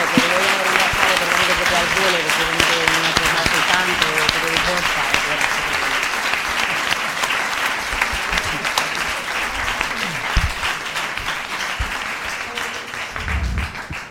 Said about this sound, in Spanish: Y yo sí le, le dedicaría un aplauso porque se ha animado a venir aquí con toda la agenda que tiene.